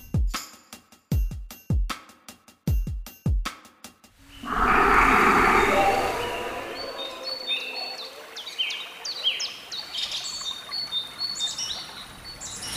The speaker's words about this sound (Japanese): 大きく開けた古民家の窓からは川や風の音も聞こえてきます。